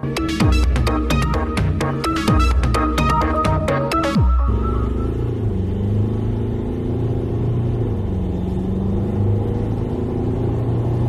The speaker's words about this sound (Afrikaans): So klink die Ford Everest met sy nuwe 2 liter diesel met 2 turbo-aanjaars en 'n 10-spoed outomatiese ratkas. Die oond vervang in die top Everest modelle die 3.2 liter 5-silinder turbo diesel.